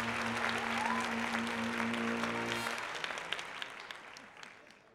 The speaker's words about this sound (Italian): Terminata l'esibizione, il pubblico le regala un applauso caloroso.